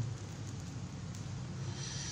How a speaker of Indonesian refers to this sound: hujan lagi kan hmm? hujan, hujan lagi.